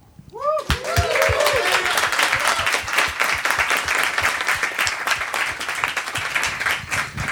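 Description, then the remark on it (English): A crowd breaks into steady applause for a panel, starting abruptly and holding loud and dense throughout, many hands clapping at once, with a brief voice at the very start. “So let, us hear it for the panel.”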